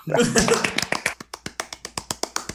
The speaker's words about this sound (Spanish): Un aplauso por eso.